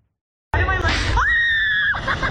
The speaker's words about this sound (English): this cheerleader and her coach are screaming their heads off on a slingshot thrill ride. The coach tries to keep his mouth closed, but too late. His fake front tooth goes flying out. Oh now those screams are mixed with laughs.